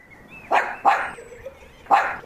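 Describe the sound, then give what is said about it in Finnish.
A dog coming along with two boys barks three times outdoors in a home yard, two quick barks close together, then a pause before a third. The barks are sharp, with no talking. “Sieltä tulee tota niin, koiran ja kaksi poikaa.”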